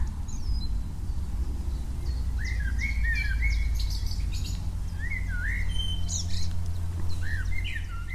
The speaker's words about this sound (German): Es ist einfach nur so klasse, wie die zwitschern. Mini kleine Vögel. Ähm, und die zwitschern, als wenn es nichts anderes gäbe. Und ähm, diese zwei Amseln, die du hörst, die unterhalten sich die ganze Zeit. Super klasse, oder?